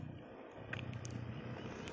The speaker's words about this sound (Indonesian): ya motor lagi motor